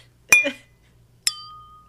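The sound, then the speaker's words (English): Two bright clinks of champagne glasses touching in a toast, about a second apart, clear; the second chime rings out longer, fading slowly. “Uh, cheers. that's why I need a one glass.”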